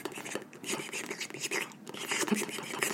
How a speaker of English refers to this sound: of Mishka sticking his tongue into that Kong. Oh, God, don't. It's a little wet. Yes. Back there. Ignore it. I don't know if you can hear it. I don't. I, I highly doubt you can, but if you can't, here's what it sounds like.